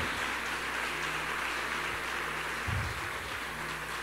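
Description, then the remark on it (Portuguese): Steady, dense applause for God from an audience in the evening fills the whole clip, a continuous wash of many hands clapping at an even, sustained level with no voices standing out. “Será que ele merece uma forte salva de palmas aqui nessa noite?”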